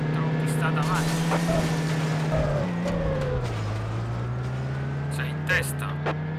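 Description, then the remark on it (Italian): A car engine drones steadily at full throttle, then its pitch sinks sharply as the car brakes hard into a left-hand hairpin bend, settling at a lower hum with faint voices underneath. “andiamo a tutto gas per fare una mega inchiodata nel tornante tornante a sinistra sentito?”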